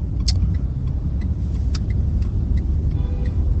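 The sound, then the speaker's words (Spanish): A broken car's engine rumbles loudly and continuously, a deep rough drone with scattered sharp ticks and rattles on top, as if the vehicle is in poor shape. “Bueno, joder, hijo de puta, el, coche este, un coche roto y me, hace salir, perdona.”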